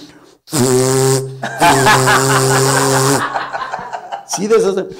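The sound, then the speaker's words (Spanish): A voice imitates a ship's steam horn, as of a ship arriving, with two long, loud, droning blasts separated by a short gap, breathy hiss riding on top, followed by a brief vocal sound near the end. “Y, no, y que llegó un barco y...”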